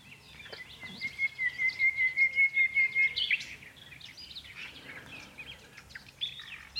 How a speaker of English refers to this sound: When I hast heard a nightingale. I. Oh, I hadn't realised I hadn't heard one. And I rather presumed I, I must have at some point have heard, heard a nightingale sing.